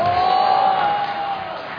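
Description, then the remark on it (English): A crowd shouts and cheers together in a sustained roar on cue during a sermon about trusting God, with one voice whooping loudly above the dense wash of voices before the noise begins to fade. “Everyone shout, before!”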